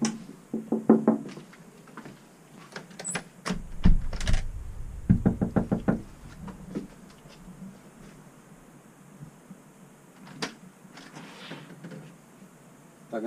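Knocking on a house door. Sharp raps come in a few quick bursts, loud against a faint background hiss with some light rustling between them.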